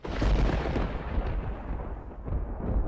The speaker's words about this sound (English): Do you see the clouds just forming in the distance? Oh, yeah. The thunder's coming. Unusual for LA, but yeah